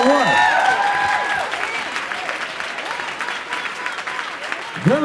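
A crowd applauds steadily for about five seconds, a dense wash of many hands clapping, with shouts and whoops rising over it at the start and again near the end.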